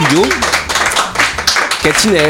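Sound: audience applauding a guest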